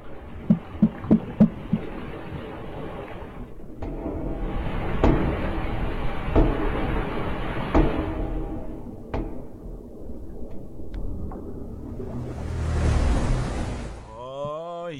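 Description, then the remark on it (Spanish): Underwater banging recorded by investigators beneath the water during the search for a missing submarine visiting the Titanic wreck, thought to be people banging on the submarine to attract searchers: a quick burst of sharp knocks, then several heavier, evenly spaced thuds about a second and a half apart, against a steady murky rumble and hiss. “cree que pudieran tener ya últimas horas de oxígeno ellos y que están golpeando el submarino para poder llamar la atención de la gente que lo está buscando.”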